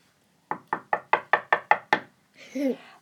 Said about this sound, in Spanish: Una vez más llamó a la puerta y gritó